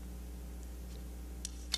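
Ice cubes clink against a glass of ice water as the ice melts, two small, sharp clinks close together near the end after a few fainter taps, over a quiet low hum.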